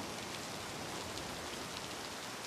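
Steady rain patters continuously on a surface, a dense, even hiss of countless drops with no pauses, moderately loud, with no voices or other sounds.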